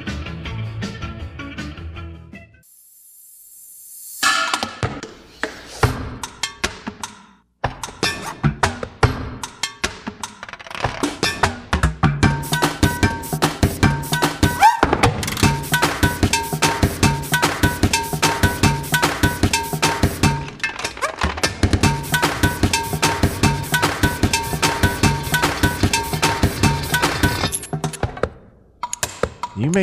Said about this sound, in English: And our producer found a very um, sort of uh, full of air tune, I, I, for a, a lack of a better way